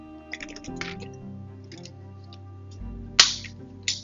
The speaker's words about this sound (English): Excuse me, let me get a drink of water here for my palate.